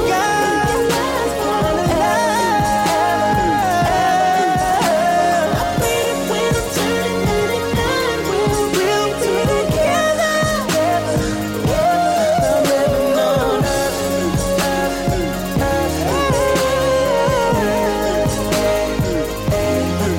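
A polished R&B pop song plays loud and steady, with a sung melody over a thumping beat and bass, continuous throughout with no talking.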